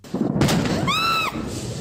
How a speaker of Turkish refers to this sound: Alevler F-16 filosuyla çok sayıda helikopterin konuşlandığı üssün cephaneliğine ulaştı. F-16 mühimmatlarının bulunduğu cephanelik canlı yayında infilak etti.